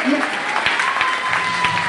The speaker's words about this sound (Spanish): Fuerte ese aplauso, me regalía.